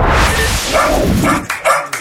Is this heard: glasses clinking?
no